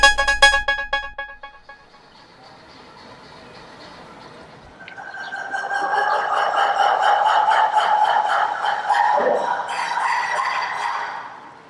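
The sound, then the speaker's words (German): A chorus of ruffed lemurs calls out at a zoo, by the pond beside the elephant enclosure, starting with sharp pulsing barks, then swelling into a loud, raucous mix of grunts, squeals and wavering howls that carries on for several seconds. “Es ist eine Mischung aus Grunzen, Bellen, Quieken und Heulen. Die Geräusche machen Varis.”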